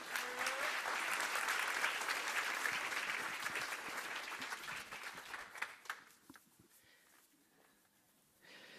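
An audience applauds with dense, steady clapping that holds strong for several seconds, then thins out and fades to scattered claps before quieting. No one speaks.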